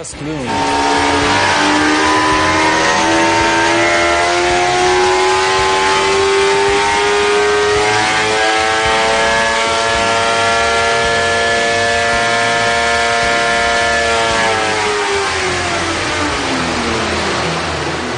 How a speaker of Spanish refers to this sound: El motor de la GSXR fue diseñado y probado aquí. Este uh, es nuestro escritorio de pruebas de motores.